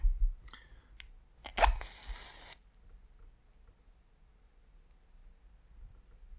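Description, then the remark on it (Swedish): A fire crackles in a fireplace on Christmas Eve, with a few sharp pops and a brief burst of dense crackling near the start, then only a faint low hum remains. “Jag har tyvärr ingen fin dikt den här gången men eh, vi kan väl bara njuta av, eh, av, av elden och varandra och av julefriden så här.”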